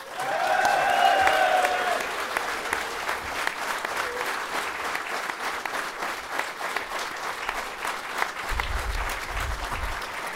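Sustained applause from a live audience for Kjetil Knutsen, a dense, steady patter of many hands clapping for about ten seconds, with a few brief whistles or cheers near the start and some low rumble toward the end.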